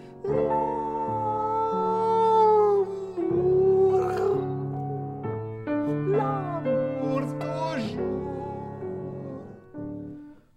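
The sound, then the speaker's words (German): A singer playing a cat sings the Habanera melody in a cat-like, meowing style, with sustained, gliding notes over steady accompaniment, loud throughout for about ten seconds. “Die Katze singt das ein bisschen eigen, wie halt eine Katze das versteht.”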